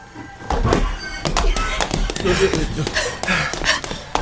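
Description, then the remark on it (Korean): Loud footsteps thud and tap in a steady walking rhythm, about a dozen heavy steps ringing through a coffee shop, over a low murmur of café background noise. “커피숍에 울려 퍼지는 시끄러운 발소리에 고개를 들었다.”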